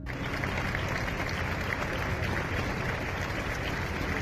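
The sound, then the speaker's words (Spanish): A large crowd of hundreds of people applauds steadily at the door of the cathedral in Valladolid during an actress's funeral, a dense, continuous wash of clapping that holds at an even, fairly loud level throughout without pausing or swelling. “Su ciudad natal la despedía con lágrimas y aplausos en la puerta de la catedral”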